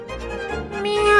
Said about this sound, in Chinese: 喵！我爱我的宠物。